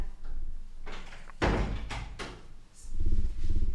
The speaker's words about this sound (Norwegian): Du, jeg må faktisk lukke denne døra, for at det begynner å blåse opp til storm her.